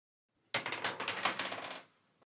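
A quick burst of dice rattling and clattering from a dice app, a dense run of sharp clicks lasting just over a second before stopping abruptly, fairly loud with no voices.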